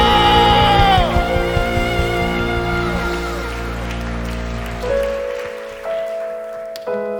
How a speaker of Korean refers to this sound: 살신 우리 주님께 감사와 영광의 박수 올려드립시다 할렐루야